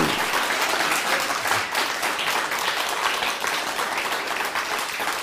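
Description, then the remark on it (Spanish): Sustained applause from a large audience fills the whole stretch, dense and steady with no gaps, a bright wash of many hands clapping at once, fairly loud. “No, den un fuerte aplauso al Eterno y a todas las naciones.”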